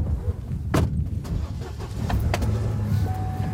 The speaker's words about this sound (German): Heute, an diesem himmelblauen Frühlingstag, sind es warme minus 3 und Dave lädt nach der Wanderung zu den zauberhaften kleinen Dingen seiner Welt ein zur Spritztour mit dem Truck durch die Zivilisation.